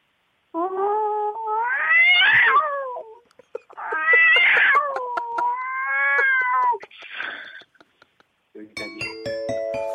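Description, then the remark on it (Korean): A person vocally imitates a fierce, angry cat as a sound imitation challenge, producing three long, loud, wavering yowls and a harsher hiss-like burst, followed by a brief chiming tone at the end. “싸나운 고양이 소리”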